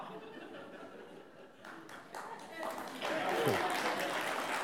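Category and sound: crowd, audience clapping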